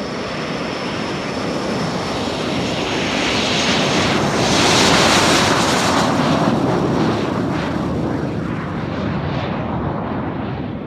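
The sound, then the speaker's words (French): A loud, steady roar of an airplane's engines during takeoff from runway 16, with wind from 190 degrees at 20 knots gusting to 30, swelling to a peak midway and then easing off as it pulls away, with no one talking. “Mistral 35, vent de 190 pour 20 nœuds, rafale à 30, autorisé au décollage, piste 16.”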